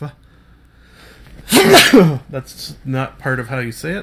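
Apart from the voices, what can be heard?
sneeze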